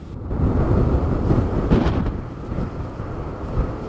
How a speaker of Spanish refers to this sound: Son las 7.20 minutos de la mañana con el sonido de fondo del volcán, eh, lo que, cómo suena, cómo ruge.